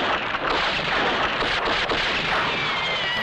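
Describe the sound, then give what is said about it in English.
A dense burst of gunfire, a loud, continuous crackling roar with a couple of sharper shots standing out partway through. No one speaks over it. “magic guns have saved Tex again.”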